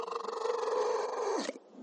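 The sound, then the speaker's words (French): A seal's display call made with its inflated, highly vascularized nasal membrane, which it inflates and shakes: one loud, buzzy, pulsing drone held for about a second and a half, then a quick downward slide and abrupt stop. “Mais ça, c'est quoi C'est la muqueuse qu'ils gonflent et qu'ils agitent justement pour pouvoir. Je vais mettre un petit gif pour justement illustrer le, phénomène. Donc, c'est ces phoques”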